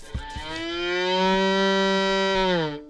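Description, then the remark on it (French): A violin mimics a cow's moo with one long, loud bowed note that holds steady for a few seconds and then sags downward at the end. No one speaks. “Pas mal la vache, non Elle est mouette aussi.”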